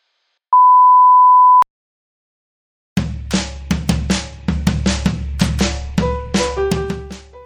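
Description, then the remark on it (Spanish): A single steady, high electronic answering machine beep sounds for about a second, followed by a short silence and then upbeat music with plucked notes and percussion. “Este es el contestador de Descolgados. Por favor, manténgase a la espera”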